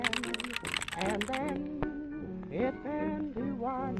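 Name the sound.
typewriter typing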